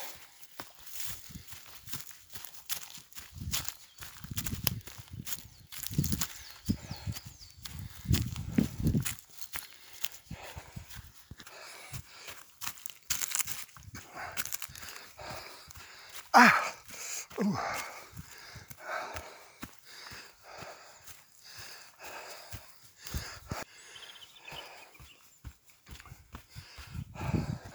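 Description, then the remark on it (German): Steady barefoot footsteps crunch and rustle over a forest floor strewn with many spruce cones, in a forest above the Johann Waller Hütte, with soft snaps and scuffs in an irregular walking rhythm, alongside occasional heavy breathing. “im Wald oberhalb der Johann Waller Hütte liegen sehr viele Fichtenzapfen am Boden und deren abgetrennte Blätter haben einen Dorn, der sich sehr leicht in die Fußsohlen spiegt.”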